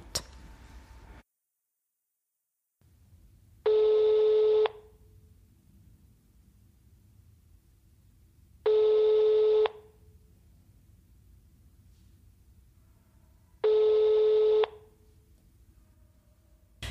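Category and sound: signal or alarm, telephone keypad dialing tones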